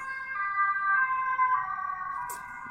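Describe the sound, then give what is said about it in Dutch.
A police siren sounds a steady, high wailing tone with a rich, buzzy edge, its pitch shifting slightly, holding fairly loud throughout with no talking and a brief hiss near the end. “Dat is politie.”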